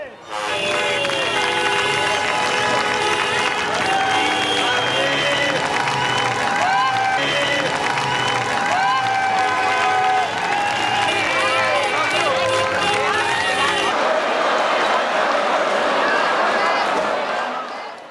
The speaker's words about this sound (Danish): og København forvandles til et hav af rød og hvide farver. Tusindvis af folk fejrer sejren og løber rundt i hele landets gader med flag og favnen fuld af øl.